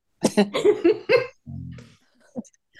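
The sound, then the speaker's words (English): A quick run of sharp coughs in a fitful rhythm, followed by a low rough throat sound and a few small breathy noises as it settles. “sorry coughing like i did”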